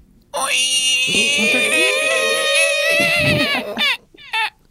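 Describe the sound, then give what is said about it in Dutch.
A voice imitates a long, loud, strained creak like a heavy vault door swinging open, done together to open a sound vault, wavering for several seconds before trailing off into two short squeaky bursts. “En dat betekent eigenlijk gewoon dat je straks even heel hard moet kraken en dan is, de, dan is hij open.”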